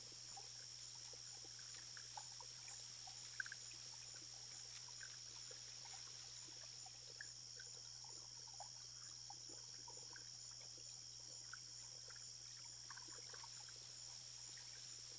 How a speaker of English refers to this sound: The silence is also profound. Absent of sounds from traffic or other human activity. Just the gentle trickling of the irrigation canals and the chirping of crickets in the distance.